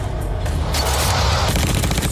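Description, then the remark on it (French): Sustained bursts of gunfire from an automatic weapon in front of a door in a film scene, loud, with rapid repeated shots and rolling booms filling the whole stretch, no voices. “Super, avec une arme automatique devant la porte”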